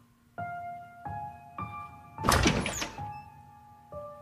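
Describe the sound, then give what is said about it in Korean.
A bathroom door is pushed open with a heavy thunk and a brief scraping rush, set among repeated low sustained tonal hits that start and stop around it. No one speaks. “그런 쓸데없는 생각을 하며 욕실 문을 열었다.”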